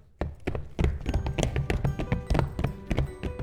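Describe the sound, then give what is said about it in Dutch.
Horse hooves gallop in a quick, steady rhythm of clip-clopping beats, fairly loud, with a busy jingling texture layered over the hoofbeats and no talking. “Hop, hop, hop. Paardje in galop.”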